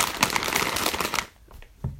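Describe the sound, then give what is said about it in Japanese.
Dense crinkling of plastic wrappers of Halloween candy, such as Tirol Chocolate, Hi-Chew and Bisco, bought to give to children, for about a second, then quieter scattered rustles with one sharper crackle near the end. No one speaks. “ハロウィン用のその子供たちにプレゼントするお菓子をね、準備しようと思って買ってきました。”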